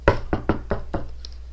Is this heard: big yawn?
no